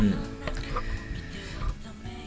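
Chickens cluck busily in a steady, overlapping stream with a rooster among them, the sharp calls moderately loud for the whole couple of seconds, with no talking.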